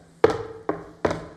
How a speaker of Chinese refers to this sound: 你听到外面敲门的声音，那么我提醒您，这是你打开心门的机会。